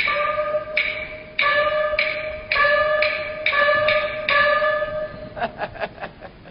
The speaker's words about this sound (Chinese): 我听下关门